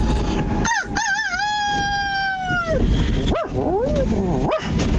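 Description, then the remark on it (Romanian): A rooster in Italy crows in a strained, dog-like way: a wavering then steady howl-like note lasting about two seconds, followed by a few short rising yelps, loud over steady background noise. “Uh, Băi, un cocoș un... hibrid cu un câine.”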